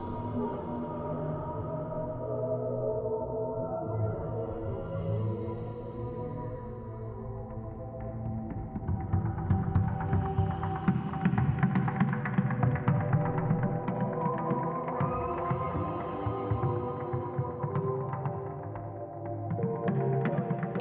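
A passage of music with sustained, layered tones over a low droning hum, growing denser and louder about halfway through; no voices are heard.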